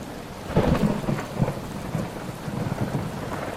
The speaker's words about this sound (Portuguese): que chuva gostosa.